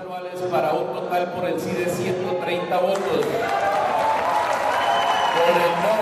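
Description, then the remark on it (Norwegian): A large indoor crowd in Colombia's national assembly cheers and applauds loudly as the assembly approves the new agreement with the FARC guerrillas. Many overlapping voices shout and clap in a dense, sustained roar that fills the whole stretch. “Jubel da nasjonalforsamlingen i Colombia godkjente den nye avtalen med FARC-geriljaen.”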